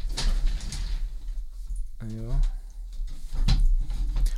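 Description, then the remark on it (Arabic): A chair is shifted and dragged around as it is swapped for another because it was making noise, with a short squeaky creak and rustling bumps; a voice briefly says something in between. “تعرف فيك تغير الكرسي لأنه هذا عم يطلع صوت فإذا بدك إيه فنحن فينا نغير”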